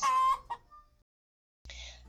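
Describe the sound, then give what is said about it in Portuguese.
A hen, Maricota from the story O Sanduíche da Maricota by Avelino Guedes, clucks: one drawn-out, loud cluck followed by a couple of shorter, quieter ones, then a brief silence before another sound starts. “A galinha maricota preparou um sanduíche: pão, mel, quirela e ovo.”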